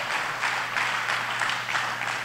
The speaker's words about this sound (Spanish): Le da ese aplauso fuerte